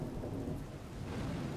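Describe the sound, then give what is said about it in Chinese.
A deep, continuous rumble of thunder rolls beneath steady, hissing rain pattering on roof tiles in the middle of the night, holding an even loudness throughout with no voices. “半夜里，旺儿叫一个炸雷惊醒了，接着，他听见屋瓦上噼噼啪啪的声音。”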